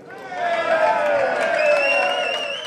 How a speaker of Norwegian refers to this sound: Mens sveitsiske supportere jublet for spillerne sine på utsiden av stadion